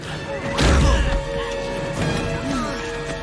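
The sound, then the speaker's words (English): A single heavy thud as a head slams against a sturdy window that holds firm and does not break, followed by a steady background hum and faint vocal sounds. “Yeah, and also just even that shows how strong the windows are because if somebody smashed their head against it and it doesn't break, you know”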